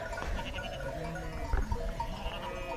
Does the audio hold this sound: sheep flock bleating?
yes